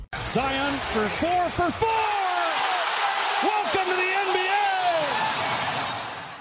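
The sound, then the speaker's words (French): A short "Welcome to the NBA" segment jingle from the French basketball show Le 5 Majeur: a loud, busy montage of crowd roar, excited whoops and shouts, and bouncing-ball thuds, gradually fading out at the end. “Welcome to the NBA Jingle.”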